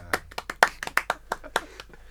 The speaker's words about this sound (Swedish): Ja, det var lite klappar där.